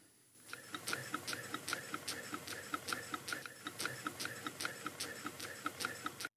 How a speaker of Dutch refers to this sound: waar ik dan een aantal Sterling-motoren, in dit geval dan die ringbombs met die veertjes... die kan ik dan gebruiken om de spullen aan te drijven.